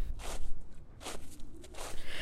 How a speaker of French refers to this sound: Fait que ça se passe un soir d'hiver dans les années 60. Mon grand-père revenait à pied d'une soirée bien arrosée à la Légion canadienne. Il marchait seul et la rue était calme, mis à part les bruits de ses bottes dans la neige.